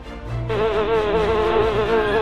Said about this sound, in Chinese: 甜饼的香味引来了二十多只的蜜蜂，一股脑的飞进箱子里来。